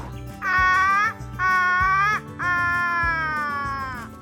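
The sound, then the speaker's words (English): A child from the Bega Valley in New South Wales imitates the call of the crow, also known as the Australian raven: three loud, drawn-out, wailing caws, the last one longest, over faint low background noise. “I'm doing the crow, also known as the Australian raven.”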